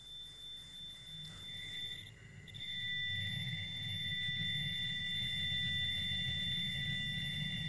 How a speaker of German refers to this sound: Zufällig habe ich so ein Deep Space Signal da. Wie es der Zufall will, drücke ich jetzt mal auf den Knopf. Hören wir mal rein.